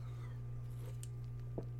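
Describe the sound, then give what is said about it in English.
A couple of short, quiet slurping sips from a nearly finished Truly can with a little hole in the top, over a steady low electrical hum with no one talking. “Did you hear that? Sipping on it.”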